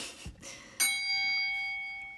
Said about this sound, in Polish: Wale w dzwon i lecimy dalej, czyli główny temat zakończony.